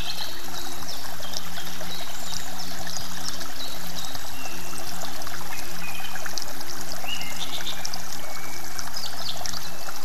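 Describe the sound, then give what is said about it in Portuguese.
Water trickles and splashes steadily from a small fountain beside the grass where a monk sits meditating in a lotus position, a continuous bubbling with soft chirps in the background and no one speaking. “Sentado em uma posição de lótus na grama, o monge medita profundamente, bem próximo a uma pequena fonte.”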